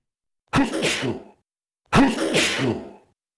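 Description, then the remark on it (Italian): A voice imitates two sneezes, each a loud, breathy burst lasting about a second, separated by a short pause, standing alone with no talking around them. The sneezes are the puppeteer Mangiafuoco sneezing in a reading of Pinocchio. “e fa altri due starnuti.”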